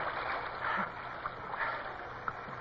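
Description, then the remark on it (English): Steady rushing water pours around a rowboat caught on a rock, with irregular splashes and small slaps against the hull, continuous with no voices. “They seem to be caught on a rock. The water's pouring.”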